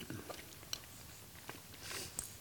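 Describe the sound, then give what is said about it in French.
Crunchy seeds being chewed: a quiet run of irregular, crisp crackles and soft bites, with a few sharper crunches standing out and no talking. “A priori, ça croque.”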